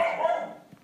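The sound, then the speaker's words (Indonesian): A single dog bark rings out clearly with a harmonic, slightly drawn-out tone, then trails off into quiet room noise. No one speaks. “ada anjing menggonggong.”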